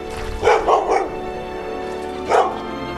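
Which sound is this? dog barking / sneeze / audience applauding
dog barking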